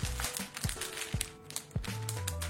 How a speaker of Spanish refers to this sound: Así que abrámoslo. Uh, mira esto. Tienen un plástico, Tienen una funda. Vamos a abrir este plástico.